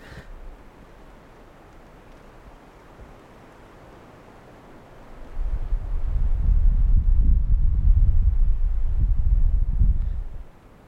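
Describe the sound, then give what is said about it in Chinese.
Wind blowing through a forest on Changbai Mountain: a faint, steady hiss, then a deep roaring gust swells for several seconds, surging like ocean waves before easing off. No voices. “我第一次发现，风吹过树林的声音有点像大海的声音。”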